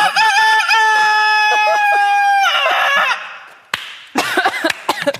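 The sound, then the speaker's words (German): A person imitates a rooster's crow, one long, loud, drawn-out call that trails off, followed by a shorter burst of crowing sounds. “Ich kann einen Hahn machen.”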